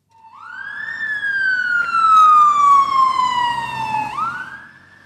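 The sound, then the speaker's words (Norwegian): A loud police siren wails continuously from a police car in Oslo speeding up on an emergency call with its blue lights on, one long tone sliding slowly downward before rising again near the end, with faint traffic rumble beneath and no speech. “Det haster når blålysene skrus på. Politibilen i Oslo setter opp farten.”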